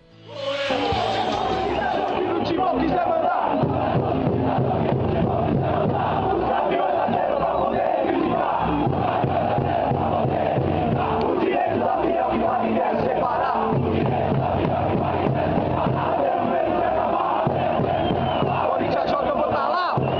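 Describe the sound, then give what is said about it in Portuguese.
A large stadium crowd of Corinthians supporters chants in unison, loud and sustained, with many voices singing a rhythmic football chant against any dictator who wants to rule the club, echoing over a steady roar of the crowd for the whole stretch. “Então, até hoje, a torcida do Corinthians canta, né, a Gaviões, no caso, conta todo ditador que no timão quiser mandar.”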